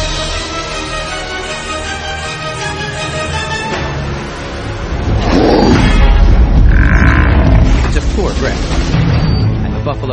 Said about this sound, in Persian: این صدای نبرد یک کومودو با بوفالوه توی این نبرد طبق معمول کومودو پیروز میشه و بوفالو رو میبله